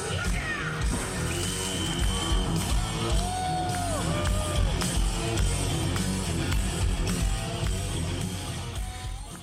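A loud live rock concert with a roaring, cheering crowd, and a shrill whistle blown a few times over the dense music and shouting.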